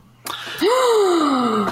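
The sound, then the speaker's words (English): A person lets out an exaggerated, theatrical gasp: a sharp breathy intake followed by a drawn-out voiced cry that swoops up and slowly falls, fairly loud, with no other sound. “Gasp! Shock! Oh no!”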